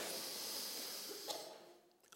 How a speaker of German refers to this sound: Ja, jetzt atmen wir mal ganz viel Luft ein. Und zwar atmen mal ein und auch dann bleibt ihr stehen. Ja, wenn, ihr, wenn die Lunge voll ist. Atmet ein, atmet ein